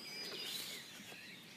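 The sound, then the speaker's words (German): Faint birdsong from a blackbird and a song thrush, thin high whistled phrases drifting over a soft outdoor background hiss, with no one speaking. “Amsel und Singdrosseln sind immer noch dabei.”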